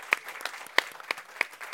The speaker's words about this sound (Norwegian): Jeg gir en applaus til, til deltakerne.